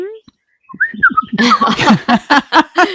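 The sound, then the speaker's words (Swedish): A person whistles short, chirpy bird-like notes, imitating birdsong, and the whistling quickly gives way to a voice talking and laughing. “Någon stor jäkla fågel utan vingar.”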